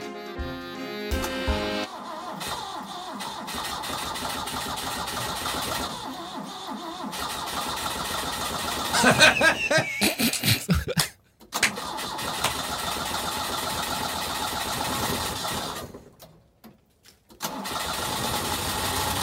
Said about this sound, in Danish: Men så vil bilen ikke starte. Nej, det ved den selvfølgelig. Den er jo fransk jo.